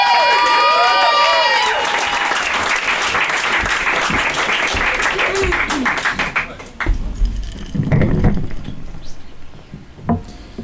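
An audience at a free open mic breaks into loud applause with whoops and cheers for a performer, dense clapping that holds steady, then thins out into scattered claps and a few shouts near the end.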